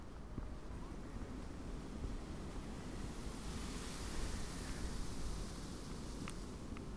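A steady, broad rustling wash of wind through bamboo leaves, continuous for the whole stretch, swelling slightly midway, with a few faint clicks and no voices.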